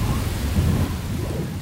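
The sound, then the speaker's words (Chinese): Heavy rain and wind roar through an all-night storm, rain drumming on a sheet-metal roof, a dense, steady rush with a deep low rumble underneath, loud and unbroken for the whole moment, with no voices. “整晚风大雨也大，雨水敲打着铁皮屋顶，一下子咚咚咚，一下子咣咣咣。”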